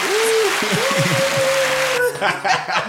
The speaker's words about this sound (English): Go ahead, hit the applause button real quick.